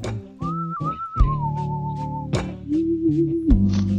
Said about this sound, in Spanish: ¡Vamos! Una musiquita especial.